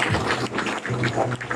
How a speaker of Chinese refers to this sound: 所以，给我们再一次给我们自己一个热烈的掌声。